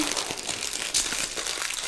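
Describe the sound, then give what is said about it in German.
A fortune cookie is cracked open amid steady crinkling of its wrapper, with one sharp, brittle snap about halfway through and no voices. “Ja, wollen wir zum Abschied noch einen Glückskeks ja. öffnen?”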